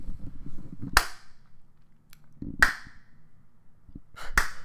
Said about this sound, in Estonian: nii, hoia, hoia korra seda, ma teen plaksu